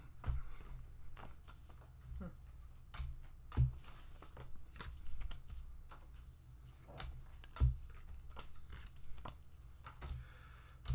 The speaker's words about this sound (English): The deck is shuffled and it begins to deal.